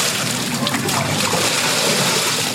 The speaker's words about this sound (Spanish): Con una cubeta roja, el señor Alberto intentaba sacar el agua del interior de su casa